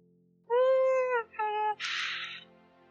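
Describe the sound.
A person hums a short movie theme tune: two sustained, nasal notes followed by a breathy, hissing burst, loud and alone with no talking.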